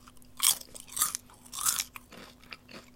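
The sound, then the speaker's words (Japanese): Chewing with crisp, crunchy bites picked up by a microphone while recording a stream: three prominent crunches and a few softer ones in an uneven rhythm, over a faint steady electrical hum, with no talking. “なんか思いのほかね、このね、あのー、あれだね、なんかくちゃくちゃ言ってる音が入っちゃうな、ちょっと微妙だなって。”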